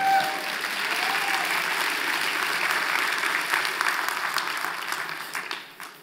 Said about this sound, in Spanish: Dale un fuerte aplauso al Señor entonces.